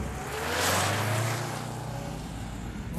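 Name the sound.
car driving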